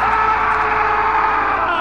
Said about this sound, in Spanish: Pasadas las horas, un grito rasgó el silencio de la madrugada.